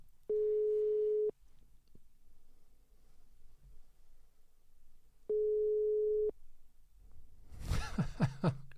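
A telephone busy signal sounds as two steady, mid-pitched tone bursts about a second long, separated by a few seconds of near-silence, followed by loud close laughter.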